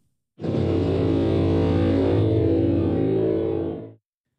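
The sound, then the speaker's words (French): A dense, heavily time-stretched sample processed with EQ, compression and a limiter: a sustained tone with thick low harmonics and a grainy, smeared texture, loud and steady for about three and a half seconds before cutting off, with no talking. “Il est important dans ce cas de bien choisir l'algorithme de time stretch pour obtenir le son voulu. Et voilà enfin après traitement EQ, compression et limiteur.”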